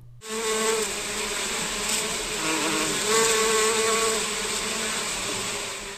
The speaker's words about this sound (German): Wie man hört, nicht nur in den Büros im Bayerischen Landtag wird fleißig gearbeitet. Bis zu 240.000 Bienen tummeln sich in den Bienenstöcken auf einer Grünfläche des Maximilianeums.